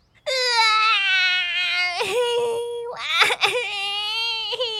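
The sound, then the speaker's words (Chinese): A voice imitates a baby crying: loud, high, sustained wails that waver in pitch, broken by a short gasp or sob about halfway and a brief catch near the end. “车厢宝宝还是一直哭，嘟嘟只好边跑步边发出好玩的声音，想让车厢宝宝安静下来。”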